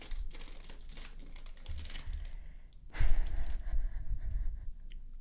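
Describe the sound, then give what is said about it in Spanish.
Crinkling and rustling of a potato chip bag, continuous and crackly, with louder crunchy bursts in the second half as someone eats the chips. No one speaks. “Quiero más papas. Pues, come, papá. Solo no hagas ruido.”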